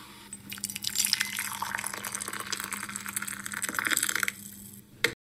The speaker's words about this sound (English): That's the sound of the coffee pouring.